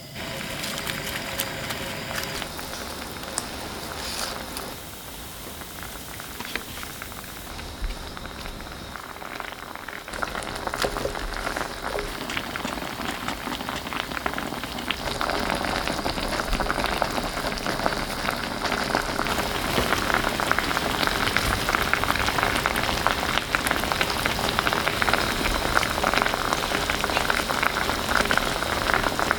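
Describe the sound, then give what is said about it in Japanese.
Sukiyaki sizzles steadily in a pan, a dense crackling hiss with scattered pops that grows noticeably louder about halfway through and keeps going without a break. “目覚めのいいね今朝はすき焼きのいい音”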